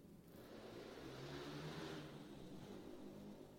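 A quiet motorcycle, ridden by a man who passes at this hour every Sunday, passes by outside, its engine droning and swelling as it draws near, then easing off as it moves away. The sound is muffled, with no voices.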